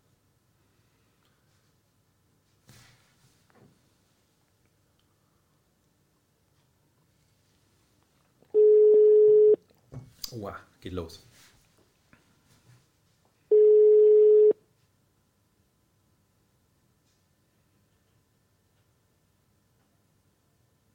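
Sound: telephone call ringing tone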